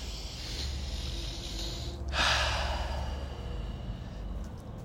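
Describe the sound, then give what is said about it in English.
A slow, deep breath drawn in and let out, airy, the exhale swelling into a louder breathy rush midway before fading back to quiet noise. “Let's take a deep breath right now.”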